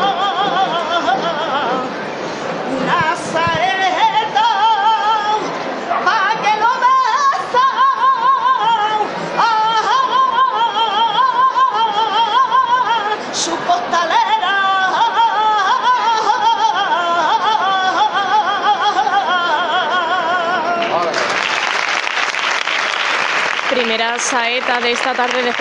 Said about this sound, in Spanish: vamos a empezar con esos sonidos que nos llegaban de Jesús preso en esa basílica menor de San Ildefonso y bueno, así hacía su salida a las calles la cofradía de la Veracruz en el año 2018.